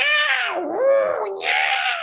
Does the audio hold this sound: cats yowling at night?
yes